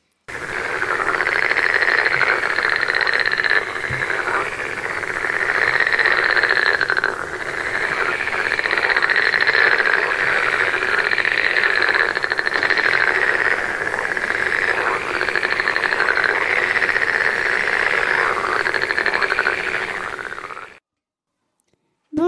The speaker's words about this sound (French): Nous voilà au bord d'une mare et nous rencontrons un crapaud.